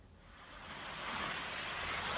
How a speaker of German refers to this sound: Ja, hier draußen stürmt ganz schön und regnet